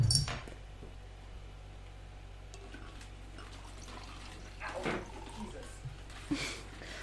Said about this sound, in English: I'm going to pour myself a glass of wine. One moment.